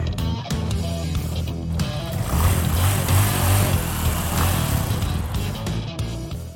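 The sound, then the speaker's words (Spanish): An ALB motorcycle engine revs loudly, its low growl climbing in pitch midway through before settling into a steady roar for several seconds. “¡Motocicletas ALB! Uh, ¡Motocicletas a la verdad!”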